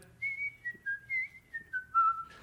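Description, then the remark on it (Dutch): A man, heard in the distance, whistles the Efteling theme park melody while moving cushions and pillowcases in and out: a run of about eight clear, sustained notes drifting gradually downward in pitch, heard alone over a faint low background hum. “En die liep gewoon de hele tijd de Efteling-melodie te fluiten.”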